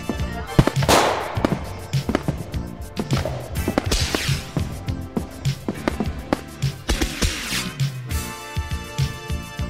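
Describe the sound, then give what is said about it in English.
A dense barrage of fireworks from a jumbo pack going off: rapid, overlapping bangs and crackling pops firing almost continuously, loud, with no one speaking. “So many fireworks. There's so many fireworks.”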